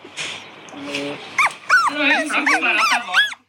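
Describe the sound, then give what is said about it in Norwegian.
A very small female puppy whimpers and yips, a quick series of short, high-pitched, wavering cries coming one after another over about two seconds. “Så er hun, hun, er en hund som er veldig liten og liker å sove mye.”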